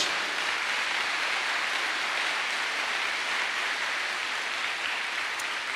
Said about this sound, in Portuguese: Você que está aqui no presencial, se concorda com essa oração, aplauda bem forte a presença dele entre nós.